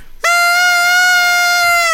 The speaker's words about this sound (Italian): No, da notare che Enzo ha la trombetta, ha fatto la prova con la sua, capito?